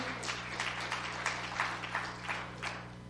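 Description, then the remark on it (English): A small group claps by hand in a loose, uneven burst of applause lasting a few seconds, moderately quiet, with no voices over it. “Yeah, that deserves a hand clap.”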